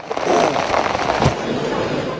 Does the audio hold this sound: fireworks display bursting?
yes